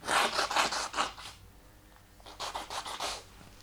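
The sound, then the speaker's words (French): Someone blows their nose into a tissue, picked up by the microphone, in two bouts of harsh, breathy, hissing bursts separated by a brief pause, with faint tissue rustling and no talking. “Euh, donc, je vais me moucher pendant que tu vas meubler.”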